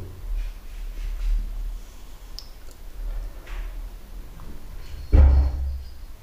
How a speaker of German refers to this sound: Bumm, da ist eine Katze runtergesprungen. Man hat's gehört.